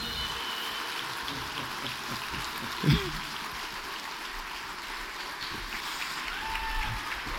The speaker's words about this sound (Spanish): con un fuerte aplauso, vamos a darle gracias a Dios por esta noche de preguntas y respuestas. Aleluya.